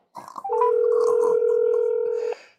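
A single ring of an outgoing phone call to a friend, made with Wi-Fi calling turned off: a steady, fairly loud electronic tone holding for almost two seconds, preceded by a brief burst of muffled background noise.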